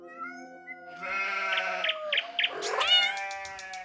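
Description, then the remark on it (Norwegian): A cat lets out a long, drawn-out meow, fairly loud, its pitch wavering and rising into a strained, yowling ending, with no other sounds around it. “Katter mjauer, sauer breker, og fugler synger.”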